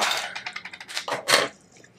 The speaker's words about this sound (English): No, it's not a twist one. I'm using a bottle opener that I bought at Amazon. It's um, it's a, it's a different kind of uh, bottle opener, but I'm gonna use my normal one.